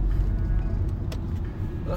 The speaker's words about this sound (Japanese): 今の車危なかったな